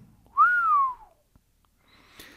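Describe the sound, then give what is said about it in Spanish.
A boy gives a single loud whistle that swoops up quickly and then glides slowly downward for about half a second, followed by quiet and a faint, brief hiss. “el chico silbó.”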